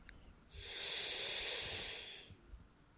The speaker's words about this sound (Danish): Tag en dyb vejrtrækning.